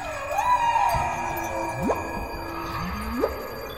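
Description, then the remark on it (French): Whale calls carry through a steady underwater hiss: a long tone that sags then levels off, followed by two rising, whooping upsweeps spaced about a second apart, moderately loud with no voices. “Alors les sons que s'échangent euh, les baleines vont remplir plusieurs fonctions et ces fonctions vont être pour la plupart vitales.”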